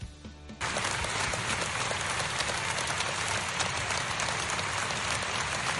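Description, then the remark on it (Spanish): An audience bursts into sustained applause for opera singer Plácido Domingo after a gala, a dense, steady roar of many hands clapping that starts abruptly after a brief quiet moment and continues loudly without pause. “Escuchemos cómo le aplaude el público a Plácido Domingo.”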